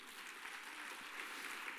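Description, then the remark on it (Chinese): An audience applauds one of the attendees steadily throughout, a dense, even wash of many hands clapping at once, fairly loud and sustained with no voices over it. “三百万，来给那个朋友一个掌声哦。”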